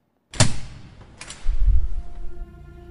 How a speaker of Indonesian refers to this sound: Maka pintu bertuliskan exit itu didorong.